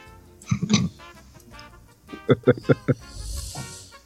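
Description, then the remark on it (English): A voice imitates a four-channel FlySky RC ground radio transmitter powering on and off: a short buzzy burst, then four quick evenly spaced beeping pulses, ending with a soft breathy hiss. “That's my that's my radio when it turns on and off.”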